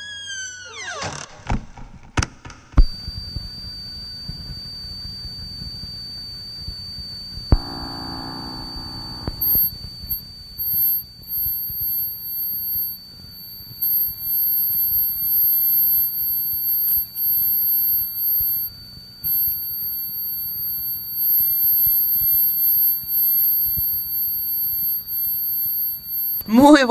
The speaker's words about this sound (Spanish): Estamos escuchando Bye Bye Butterfly, una composición de Paulino Oliveros.